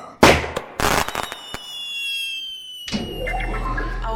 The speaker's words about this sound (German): Hurra! Konfettikanone.